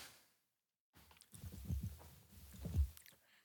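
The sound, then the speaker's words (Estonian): Soft sipping and gulping of water, a few wet mouth and throat sounds over a couple of seconds after a brief silence, with no talking. “võtan ühe lonksu vett”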